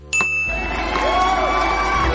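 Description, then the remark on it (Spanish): A small hand bell gives one bright ding that rings on and slowly fades, while a noisy crowd hubbub swells up underneath it. “Al oír la campanilla, serás una actriz recogiendo el premio a toda tu carrera.”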